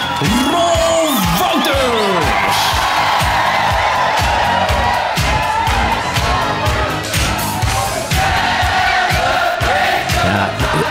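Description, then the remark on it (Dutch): A studio audience of a Tuesday-evening television show cheers and roars in a sustained ovation for the host's entrance, with loud whoops and shouts rising over dense, continuous applause that stays at full volume for about eleven seconds. “Dames en heren, wat is jong en wild en houdt van een ovationele opkomst op de dinsdagavond?”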